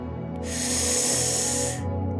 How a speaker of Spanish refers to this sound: Inhalen por la nariz y llenen su vientre como si estuvieran llenando un globo.